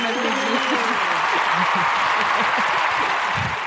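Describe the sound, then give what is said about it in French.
Steady applause from a group for Acast's third-quarter 2021 figures fills the whole stretch, a dense, even wash of clapping at a constant level, with a few indistinct voices murmuring underneath. “Est-ce qu'on peut Exactement. applaudir Ouais.”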